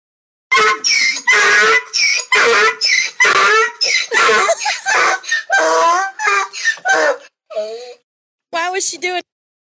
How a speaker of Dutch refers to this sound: Duidelijk wat het was? de meeste mensen denken dat het een ezel was. Ja, dat is, eh, dan hebben de meeste mensen het helemaal goed gedacht.